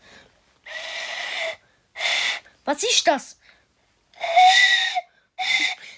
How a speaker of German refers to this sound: Das ist eine Vogelpfeife. Was ist das? Das ist eine Vogelpfeife. Habe ich gerade vorher gesagt.